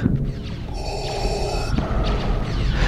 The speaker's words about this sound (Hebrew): מה שיש לנו זה את הנשימות האלה, שזה בן ברט, זה סאונד דיזיין, וזה ודאי שמלווה את ויידר מכאן ואילך. ברגע שהנשימות האלה מוצמדות לדמות, הם כבר המוטיב של הדמות. לא מוזיקה אמנם, אבל יפה לא פחות.